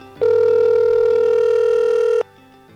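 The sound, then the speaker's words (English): A steady telephone ringing tone sounds once, a loud electronic buzz lasting about two seconds, heard alone on the line before it cuts off to quiet. “And now I need to make a phone call.”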